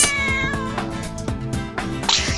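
A big, strong cat in a grocer's store meows loudly, letting out several drawn-out, wailing cries in quick succession with no one speaking.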